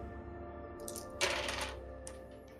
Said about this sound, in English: Just be a second. I got some dice to roll. Oh my gosh, got a small mountain of dice.